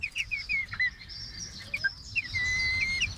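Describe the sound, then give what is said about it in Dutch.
High, thin peeping calls from young chicken chicks kept indoors, repeated in quick bursts and a few longer whistled notes, over a low background rumble, with no talking. “Leuk dat geluid. Tenminste, ik hoop dat je het kunt horen.”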